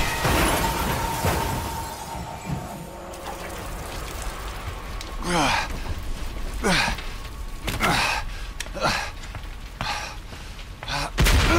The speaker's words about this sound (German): Der Fahrer des LKWs versuchte noch auszuweichen, doch es war zu spät. Erbarmungslos krachte er in die umstehenden Autos.